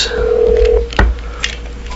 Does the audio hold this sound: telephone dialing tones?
yes